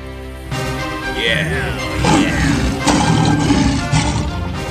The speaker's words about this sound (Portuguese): O leão começou a rugir muito alto e tentou escapar, mas os caçadores prenderam a rede.